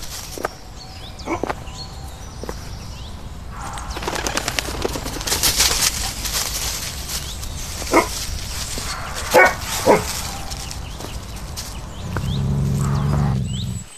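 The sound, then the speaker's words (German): A dog named Derek barks several times in a forest, in short, irregular bursts, a couple of sharp woofs standing out loudly over a steady background hum, with no one speaking. “Derek, du blöde Töle, lass mich durch.”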